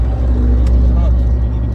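A car engine drones loud in a steady, low rumble that fills the whole moment as the car accelerates hard in the left lane of a BR highway to overtake a truck.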